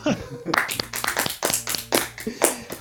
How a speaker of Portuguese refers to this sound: O cara é foda, uma salva de palmas pra esse cara aqui, que ele é sensacional.